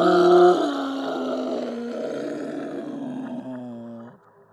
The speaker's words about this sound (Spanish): Así nos lo hizo saber un grito de dolor y la manera en que esa mujer pareció doblarse. Se escuchó como un animal, como una herida